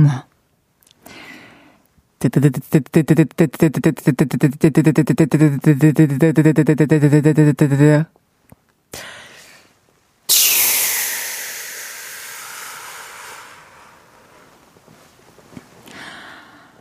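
A washing machine runs with a rapid, rhythmic mechanical churning for several seconds, then falls quiet before a loud rushing hiss bursts in and slowly fades away.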